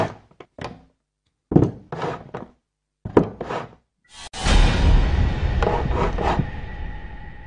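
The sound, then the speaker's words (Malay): At night, from the floor above, several hollow knocks thud in irregular bursts, then a long, heavy scraping as furniture is dragged across a floor, grinding steadily for a few seconds. “Tengah tengah nak tidur, malam-malam je akan dengar bunyi ketukan, bunyi perabot diseret”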